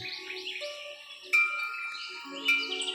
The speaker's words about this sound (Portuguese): Pássaros que voam tranquilamente e cantam lindamente para alegrar os seus ouvidos e uma brisa de vento bem suavemente.